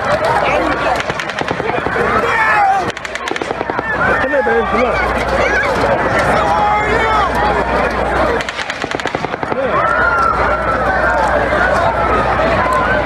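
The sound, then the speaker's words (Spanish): Two rapid bursts of automatic gunfire crack out over a loud, panicked crowd of thousands at a country music festival in Las Vegas with more than 20,000 attendees, at night, with people shouting and screaming as they scramble and run in all directions throughout. “Las escenas grabadas entonces mostraron a miles de personas corriendo en todas direcciones, tratando de escapar de las ráfagas de disparos que no dejaban de escucharse.”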